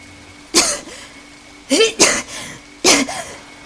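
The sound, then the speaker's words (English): Four harsh, raspy coughs from a dying woman coughing up blood, fairly loud, coming in uneven bursts with a quick double cough in the middle and short quiet gaps between. “Coughing, she hears the voice of Mikado.”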